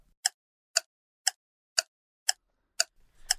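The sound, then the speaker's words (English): A ticking clock, cued as a one-minute timer, sounds seven crisp, evenly spaced ticks about half a second apart, clear against silence, with faint background noise creeping in at the very end. “And Westoff, cue the clock, go.”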